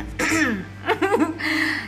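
A raspy throat clearing made in a few short voiced bursts, with a choppy middle stretch, heard on its own with no talking.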